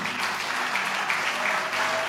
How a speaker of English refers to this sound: Can you help me applaud this man?